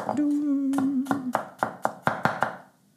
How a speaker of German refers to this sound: Wie gesagt, jetzt einfach würfeln. Ich schneide zweimal parallel zum Brett merke, ich sollte mein Messer mal wieder schleifen und Streifen von oben runter und nochmal quer. Kleine, kleine Würfelchen.